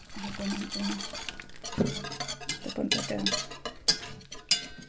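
A utensil stirs starch into water in a large enamel bowl, with irregular scraping swishes and a few sharp, bright clinks against the bowl's side, moderately loud and continuous throughout.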